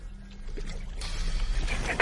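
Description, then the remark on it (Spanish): A motorboat's low engine rumble churns steadily, joined after a moment by a rougher, louder grinding and splashing as the hull drags over the shallow river bottom toward the shore, with a sharp scrape at the end. “Estamos arrastrándonos sobre el fondo. La lancha irá arrastrándose hasta la orilla.”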